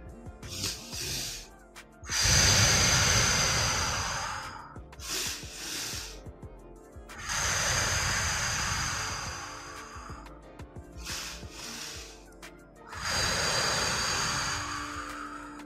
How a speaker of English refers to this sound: In through your nose, top it up at the top. Exhale, long exhale out.